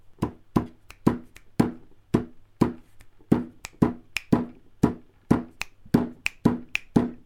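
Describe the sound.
A rhythmic pattern of sharp hand taps and claps, fairly loud, beating out a song-like groove with varied spacing and no talking over it, played as a game of tapping out a song.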